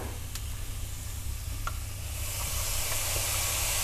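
Soy sauce added to konjac noodles sizzles in a hot pan, a steady crackling hiss that swells louder and brighter toward the end, with a few sharp pops and a low hum underneath.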